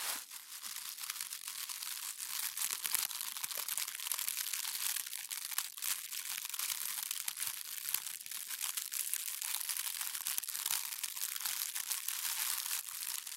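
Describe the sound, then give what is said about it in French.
Continuous dense crackling and crinkling from material being crumpled, used instead of a broom to imitate a fire's crackle: a steady stream of sharp little snaps, with no talking throughout. “Je n'ai pas de balai sous la main pour faire le feu, donc j'ai pris autre chose, mais je ne sais pas du tout ce que ça peut donner.”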